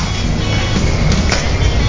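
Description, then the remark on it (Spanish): Baudelio Bonilla's car rumbles steadily and loudly throughout, a constant low roar with gritty road noise and a couple of brief rattling clicks near the middle, and no voices. “Es el carro el Baudelio ese, Oh, qué pro.”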